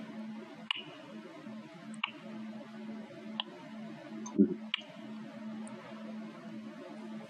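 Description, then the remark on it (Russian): High-heeled shoes click across a hard floor in a bar in slow, evenly spaced steps, about five sharp taps over a steady low room hum, with no voices. “тишину бара разрывает стук каблуков. Каблуков туфель.”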